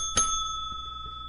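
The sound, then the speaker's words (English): A single bright bell ding rings out loud, its clear metallic tone lingering and slowly fading over a low background hum. “Uh, uh, sorry, Seven Eleven ring that bell.”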